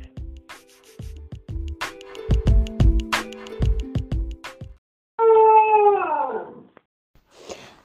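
After a short rhythmic musical jingle, Ricky, a tricolor basenji dog, lets out one loud yodeling howl, a wavering tone that slides downward for about a second and a half before fading.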